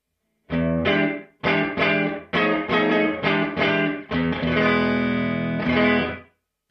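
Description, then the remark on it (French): A series of strummed, distorted electric guitar chords, played through an amp with its built-in room reverb, rings out loud, each chord with a short roomy tail, ending in a sustained chord that cuts off. “J'ai pas l'impression, à mes petites oreilles, que la reverb room intégrée est stéréo, mais peut-être je me trompe.”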